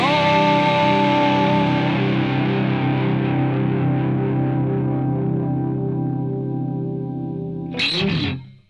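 The closing chord of a singer-songwriter's pop song, one used in NHK programmes, rings out, sustained and effect-laden, slowly fading over several seconds before a brief bright swooshing burst cuts in at the very end. No one speaks.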